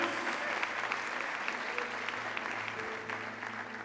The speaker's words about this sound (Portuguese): Aplauda o Senhor, porque Ele é digno, aleluia, aleluia, aleluia. Aplauda o Senhor, aleluia.